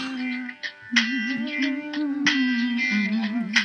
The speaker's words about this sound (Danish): Nå, jeg prøver at sætte noget musik på fra min iPod. Yes. Oh. Kan I høre, det er? Ja.